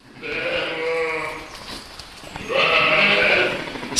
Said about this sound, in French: Si les brebis sont du genre causante, c'est moins le cas de Bataille, un bélier de deux ans